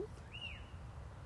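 A single brief bird chirp, a thin rising-then-falling whistle, sounds faintly over low, steady outdoor rumble. No one speaks.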